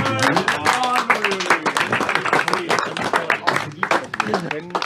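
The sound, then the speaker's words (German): Steady audience applause, dense crackling clapping running throughout, mixed with cheering voices and talk over the top. “Applaus bitte nicht vergessen.”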